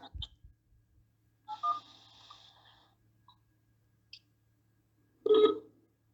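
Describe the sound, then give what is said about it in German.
Telephone dialing tones, a sound effect for a call to Kai Pflaume, play as a short burst of electronic beeps, followed by a pause with faint clicks and a final louder tonal blip; no one answers or speaks. “Mal gucken, ob er dran geht.”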